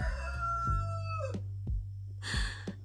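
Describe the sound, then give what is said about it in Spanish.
A neighbour's rooster crows once, a long strained call that falls in pitch at the end, followed by a few short noisy bursts over a steady low background hum. No one speaks. “Eso que acaban de escuchar ahí es el gallo de mi vecino.”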